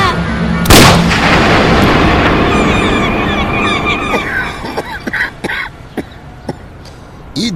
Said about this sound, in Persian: درگیری و صدای تفنگ